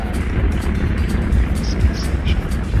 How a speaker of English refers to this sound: Ignition sequence start. 5, 4, 3, 2, 1, 0. Launch commence. Liftoff. We have liftoff. Launch Apollo 14.